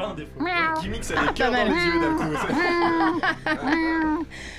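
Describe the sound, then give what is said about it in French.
A person's voice imitates a cat, producing a quick series of drawn-out, rising and falling meows, fairly loud, with a bit of laughter-like breathiness between them. “Parfois, euh, je miaule peut-être faire un extrait”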